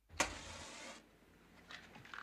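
A fireplace being switched on: a sharp click, then a steady whooshing hiss that lasts under a second before dropping away, followed by a few faint soft clicks.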